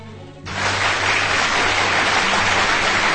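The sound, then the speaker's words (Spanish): Applause breaks out suddenly after a brief quiet moment, a dense, steady clatter of many hands clapping that stays loud and even to the end, with a faint low hum beneath. “He tenido que aplaudir, oye, pero qué es soy.”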